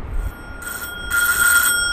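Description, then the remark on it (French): A bell rings in two bursts, a brief ring followed by a longer, steady one, clear and moderately loud over a low background rumble, with no one speaking. “Une deuxième sonnerie retentit.”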